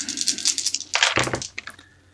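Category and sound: household object, dice being rolled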